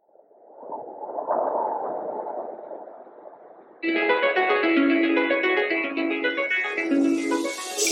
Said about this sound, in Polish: OK, czyli robimy, bo już e, robimy teraz drugą przerwę muzyczną.